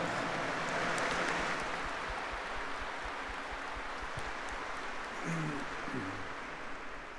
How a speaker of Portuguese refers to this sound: Vamos nos acolher a todos com aquela salva de palmas calorosa, fraterna.